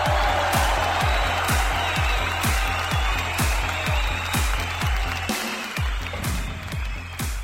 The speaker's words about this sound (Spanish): Aplausos para la esposa que salvó a todo el fandom. Aplausos, aplausos para la esposa, por favor, aplausos.